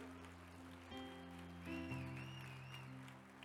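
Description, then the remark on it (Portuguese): An audience applauds steadily throughout, a dense, soft wash of clapping, mixed with sustained keyboard chords that shift a couple of times. “Uau, pode aplaudir.”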